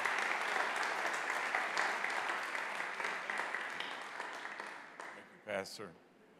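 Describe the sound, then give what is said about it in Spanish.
A large crowd applauds to welcome a guest speaker, in a dense, sustained wash of clapping that slowly thins out, followed by a brief voice at the end. “Así que por favor, denle un fuerte aplauso, bienvenida a nuestro hermano,”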